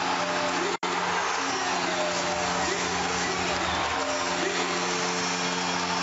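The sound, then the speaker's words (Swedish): A hockey arena crowd at Gälleräven Center roars after Schröder's goal making it 2-0, a loud, unbroken wall of cheering that holds steady for several seconds, with one split-second dropout near the start. “Och stället går bananas! Fullständigt! Gälleräven Center jublar.”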